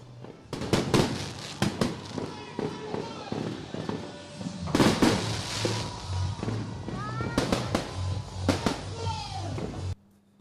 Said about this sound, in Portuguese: E para fechar o ano, um lindo espetáculo de fogo de artifício. Sejam bem-vindos ao ano 2021.